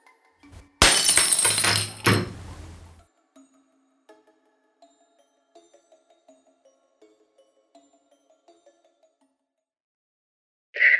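A loud crash of glass shattering, followed by several seconds of small scattered shards tinkling and settling, then a brief sound at the very end.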